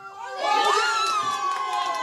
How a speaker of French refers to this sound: Voilà, cette euh, jeune fille que vous entendez crier sur le but de, de Kazri, ses, doigts, son, maillot tunisien sur les épaules, doigts.